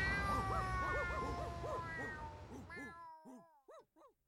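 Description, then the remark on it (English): A loud, crowded chorus of cats meowing and yowling over one another, dense and overlapping, then thinning out to a few separate, rising-and-falling meows at the end. “The dogs fled the theatre, the street, and the whole of London's glittering West End, pursued by the army of cats.”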